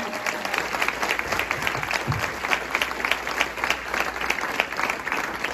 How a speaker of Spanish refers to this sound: Ese es el pastor que tenemos, ese es nuestro buen Dios. ¿Cuánto le damos un aplauso a Él en esta mañana?